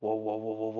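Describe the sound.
A voice imitates the grinding of one of two sliding wardrobe doors being opened, a steady droning hum that wobbles in about five quick pulses, lasting under a second.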